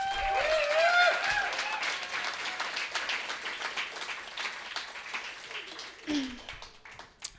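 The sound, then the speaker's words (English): An audience at a reading series breaks into a round of applause, dense overlapping claps at a steady loud level that gradually thins, with a few cheers and whoops rising over the clapping near the start. “And so give a, give a round of applause for this guy.”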